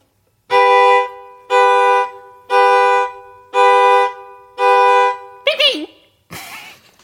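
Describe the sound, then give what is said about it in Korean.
A car horn is imitated on a violin with five loud, evenly spaced honks, each lasting just under a second. A short warbling, squawky call follows right after. “자동차 경적 소리.”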